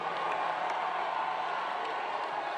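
A large crowd at a Bernie Sanders rally in Manchester, New Hampshire, on the night of his victory roars in a steady, dense wash of cheering and applause, with scattered claps and shouts running through it, loud and unbroken with no single voice standing out.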